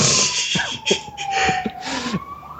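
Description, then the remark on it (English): An emergency vehicle siren wails steadily outside, its pitch sliding slowly while scattered background noise and brief clatters sound through it. “But uh, that's a siren.”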